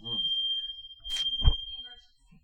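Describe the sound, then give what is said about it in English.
A fire alarm set off by smoke in a room sounds a single steady, shrill high-pitched tone that holds unbroken throughout, with brief muffled voices and a thump underneath. “Is it a fire alarm? Yeah, there's smoke in one room.”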